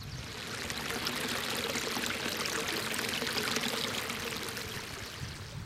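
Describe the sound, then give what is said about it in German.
Water pours steadily down a series of small steps from a pond, a continuous splashing rush with a bright, hissy texture that stays even throughout. “Nein, es ist kein rauschendes Bächlein, aber es ist zumindest so Treppen, dieser Teich. Und das Wasser fließt hier runter.”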